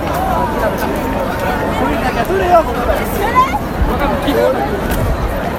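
Dense crowd chatter fills a busy street in Shibuya, many overlapping voices blending into a steady hubbub with no single speaker standing out, holding an even level throughout.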